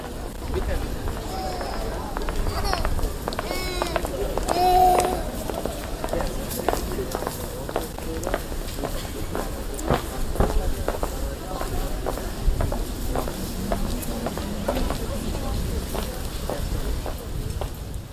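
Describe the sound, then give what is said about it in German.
Steady footsteps walk across the hard floor of a parking deck in Altona, echoing, the rhythm brisk and continuous, with faint background voices and ambient murmur underneath. “durch Ikea flaniert, in virtuell, aber eigentlich auf dem Parkdeck in Altona rumläuft.”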